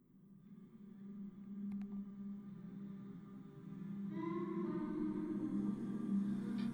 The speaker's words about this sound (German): Schon im kleinen Flur des Portikus, direkt hinter der Eingangstür, hört man die Ausstellung. Ein durchdringendes Summen und Melodien, die an Kirchengesänge und Meditationen erinnern.